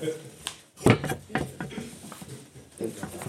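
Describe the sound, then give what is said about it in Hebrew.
A door bangs once, a solid knock-like thud rising briefly above a murmur of voices and small shuffling noises. “בוא אה? דלת, כן.”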